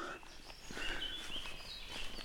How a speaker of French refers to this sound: Mais en fait, oh toi c'est joli toi. Oui, toi t'es au moins la grive musicienne et la fauvette à tête noire.